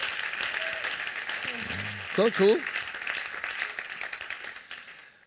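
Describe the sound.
Steady crowd applause fills the whole clip, a dense wash of clapping, while a voice briefly speaks over it midway.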